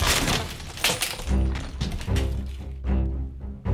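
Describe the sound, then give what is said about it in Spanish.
A wooden door is forced open with a machete with a loud, splintering crack: sharp wooden snaps and thuds in the first second, then a low, groaning creak of strained wood that trails on unevenly. “Con bárbaro chasquido la puerta se dio.”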